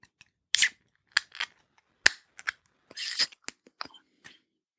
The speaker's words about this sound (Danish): vil du åbne øllen?